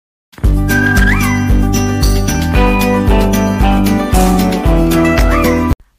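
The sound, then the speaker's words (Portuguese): A short, bouncy music jingle with a steady thumping beat and bright melodic lines, including a couple of meow-like sliding notes, plays loudly for about five seconds and then cuts off abruptly. “Após essa musiquinha que gruda igual hit de carnaval que passa naqueles carros de som na rua”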